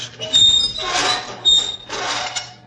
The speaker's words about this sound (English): Footsteps on the crypt roof. Right. We have a visitor.